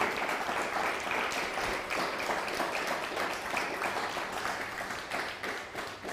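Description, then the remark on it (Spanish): Sustained audience applause given to the Almighty during a religious sermon, a dense, steady wash of many hands clapping at once, loud and continuous for several seconds with a slight easing toward the end and no voices on top. “Denle Dele un fuerte aplauso al Todopoderoso.”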